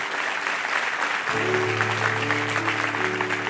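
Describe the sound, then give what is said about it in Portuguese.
A church audience claps steadily for God in a dense, sustained wash of applause, and about a second in a low, sustained organ-like tone swells in underneath. “Vamos aplaudir a Ele, vamos orar, vamos embora.”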